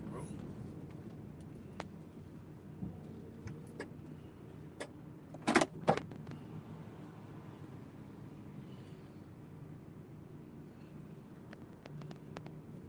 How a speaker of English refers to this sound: Up right next to me like that. This nigga just totally fucking invaded my space, pulling this big bus up here.